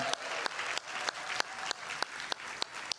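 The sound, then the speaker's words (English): An audience at Miami Vineyard church applauds to welcome the online audience, a dense, steady wash of clapping with sharper claps cutting through in a regular beat about three times per second. No one speaks. “Hey, can we make some noise and welcome in our online Vineyard family? Come on, let's hear it for them.”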